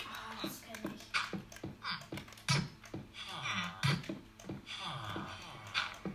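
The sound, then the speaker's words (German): Typing on a computer keyboard whose B key is stuck pressed in: a steady run of sharp, irregular key clicks and taps, some struck harder than others, continuing throughout at a moderate level. “Mann, das nervt, mein B ist eingedroppt, eingedrückt.”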